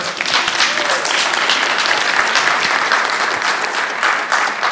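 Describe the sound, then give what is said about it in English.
Sustained applause from a sizable crowd, a dense wash of clapping that stays loud and steady throughout without pausing. “I'm, I'm, I'm glad you're applauding because I'm about to disagree.”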